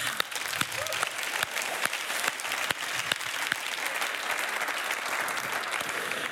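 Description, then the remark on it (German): An audience gives a man another round of applause, clapping steadily, a dense wash of many hands with a few sharper individual claps standing out, sustained and fairly loud for several seconds with no talking. “Gib ihm nochmal einen Applaus”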